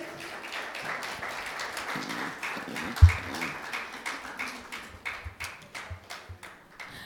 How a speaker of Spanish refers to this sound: Amén. Denle un aplauso a Dios.